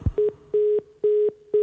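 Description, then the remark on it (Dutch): An old telephone sounds a steady, low electronic tone in repeated on-off bursts separated by brief silent gaps, each burst starting and ending with a soft click. It is fairly loud, with no talking. “Nou, kijk, die ouderwetse telefoon die werkt meestal nog eh, gewoon.”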